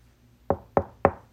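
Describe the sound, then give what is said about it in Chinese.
Three firm knocks on a plastic toilet door, evenly spaced about a quarter second apart, each a sharp thud with a short ringing decay, alone against a quiet background. “我的手正要离开门板时，里面突然传来，并且伴随着敲打的震动。”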